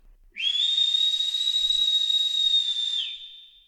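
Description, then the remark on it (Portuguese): A single long, high whistle holds one steady pitch for nearly three seconds, loud, then slides down slightly as it fades out. No voices or other sounds accompany it. “Ouviram mais uma vez o assobio.”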